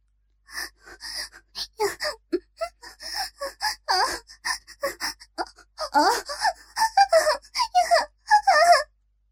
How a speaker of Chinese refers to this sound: 强忍住用微弱的声音呻吟，越发高亢。